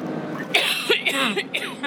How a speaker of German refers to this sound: Ach, jetzt muss ich husten. Ja, hust doch.